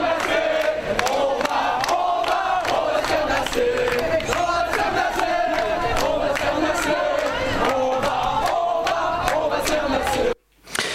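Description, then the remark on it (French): A crowd of counter-protesters against La Manif pour tous, tearing down marchers' flags, shouts and chants loudly and continuously, voices overlapping in a dense roar with rhythmic vocal surges, until a sudden brief cutoff near the end. “Tous les contre-manifestants n'ont pas été nassés et certains ont donc continué à crier et chanter et à arracher même les drapeaux euh, des gens de la manif pour tous.”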